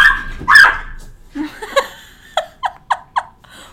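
A small castrated dog gives a string of high-pitched, squeaky barks, starting with a couple of loud yelps and ending in four quick, evenly spaced yips.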